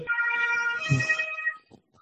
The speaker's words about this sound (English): can you hear the sirens? don't worry about it. Mm-hmm. it's it's Berlin, and I'm yeah.